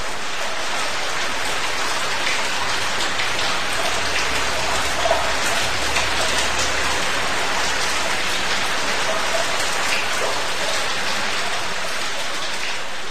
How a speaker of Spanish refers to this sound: La lluvia es bella y triste y acaso nuestro amor sea bello y triste y acaso esa tristeza sea una manera sutil de la alegría o íntima, recóndita alegría. Estoy tocado de tu destino, oh lluvia, oh generosa.